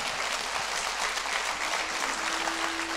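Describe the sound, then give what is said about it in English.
A crowd applauds steadily, a dense, even wash of many hands clapping that holds at a constant loudness throughout, with no voices standing out. “Come on, clap for the last five minutes of this.”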